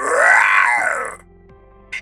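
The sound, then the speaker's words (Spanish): A person growls out a loud, raspy imitation of a lion's roar, rising then falling in pitch over about a second, followed by quiet and a brief faint hiss. “Y por aquí, el león de la selva de concreto, sí.”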